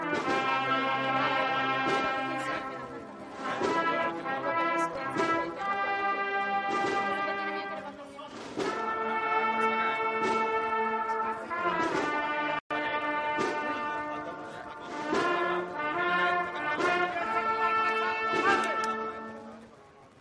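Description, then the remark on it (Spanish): A brass band plays the slow, solemn processional march "Oh Pecador" for the paso de misterio of Los Judíos de San Mateo in the streets of Jerez, sustained chords swelling over steady drum beats, loud and continuous throughout with no talking. “Y suena O oh Pecador para el paso de misterio de los judíos de San Mateo.”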